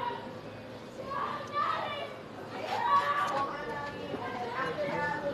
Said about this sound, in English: But after that, oh my God, why is the kid screaming?